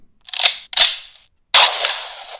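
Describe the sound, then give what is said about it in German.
A rifle is loaded with two quick mechanical clacks, then after a short pause a single loud, sharp gunshot rings out with a rough, fading tail. No one speaks. “Und natürlich ein Gewehrschuss. Das Gewehr wird erst geladen, es wird geschossen”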